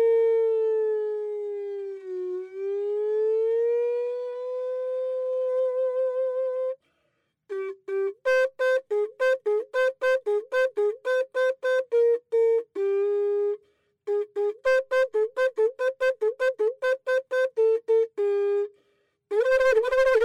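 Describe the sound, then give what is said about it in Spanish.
A conch shell trumpet blares a long, loud held note that dips and rises in pitch, then breaks into rapid runs of short staccato blasts with brief pauses, heard alone. “los caracoles son iguales. Cada caracol tiene una personalidad y un, timbre de, propio de él mismo.”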